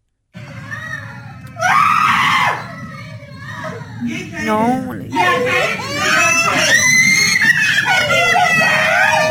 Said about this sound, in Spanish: Y entonces las desgraciadas, las burras del día, se ponían la máscara y les asustaban a los pobres niños y escucha los gritos de los niños.